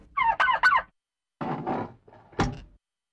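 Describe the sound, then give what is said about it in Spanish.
Village turkeys, on the day they are slaughtered to cook a traditional broth, gobbling in three bursts, a rapid warbling call first, then two rougher ones after a short pause, clear with no voices. “Después de desayunar, se tocan las campanas de la iglesia y todos en el pueblo al mismo tiempo matan a sus guajolotes para poder cocinar fresquecito nuestro famoso caldo mijo.”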